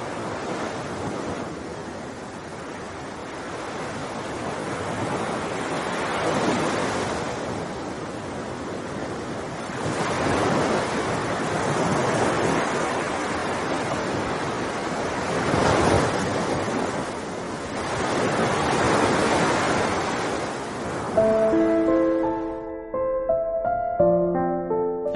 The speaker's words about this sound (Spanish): El Caribe, al atardecer, brama a unas decenas de metros.